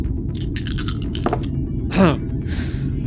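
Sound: dice being rolled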